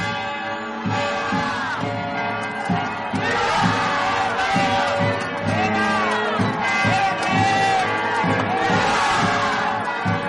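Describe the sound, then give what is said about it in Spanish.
A loud, steady crowd din of many overlapping voices shouting and cheering in crowded city streets as an emperor advances through them, with cathedral bells ringing through the noise for the whole stretch. “Las calles están abarrotadas.”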